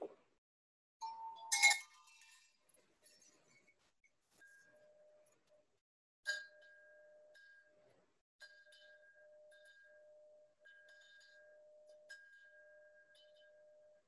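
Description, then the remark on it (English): A few soft metallic chimes are struck one at a time in a demonstration, each strike leaving a long, gentle sustained tone that fades slowly in an otherwise quiet space. “our praises were like those chimes”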